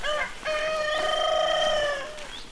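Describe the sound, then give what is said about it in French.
A rooster crows loudly, one long drawn-out cock-a-doodle-doo with a rising start and a sustained, strained tail, preceded by a brief short call. “son cheval, son poney, ses coqs, ses chiens.”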